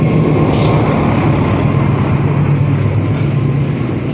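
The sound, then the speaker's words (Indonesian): A train rumbles past, a loud, steady roar with a deep low hum and broad rushing noise that fills the whole stretch, easing only slightly toward the end. No one speaks. “bentar, kereta lewat bener ah.”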